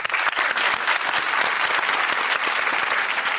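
An audience applauds a retired lieutenant-colonel of the São Paulo Military Police who is in the audience, a dense patter of many hands clapping steadily at an even loudness with no pauses and no voices over it.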